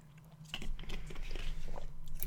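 Someone swallows water: a short run of soft, wet gulps and mouth clicks over a low steady hum, with no talking.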